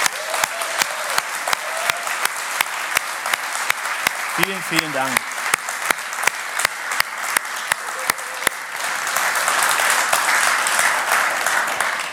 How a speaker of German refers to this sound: Es gibt so viel und ich dachte, wir geben denen einfach mal kurz einen richtig fetten Applaus. Okay?